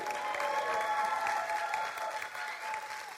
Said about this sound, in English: Why don't we give them an applause?